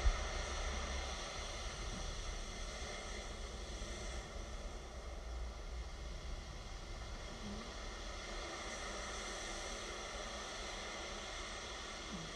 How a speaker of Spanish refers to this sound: Tus ojitos relajados, mirando cómo van y vienen las suaves olas del mar.